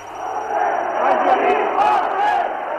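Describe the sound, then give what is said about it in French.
An angry crowd shouts in the street at Place du Gouvernement in Algiers, where a few armored cars are stationed: a dense, continuous roar of many overlapping voices that stays loud throughout, with a few sharper cries bursting above the din. “C'est en passant place du gouvernement où sont installées quelques automitrailleuses que la colère de la foule éclate.”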